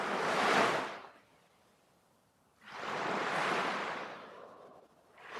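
Ocean waves wash onto the shore in slow, broad rushes of surf, each swelling and then receding into a quieter hiss before the next one rolls in. No voices are heard.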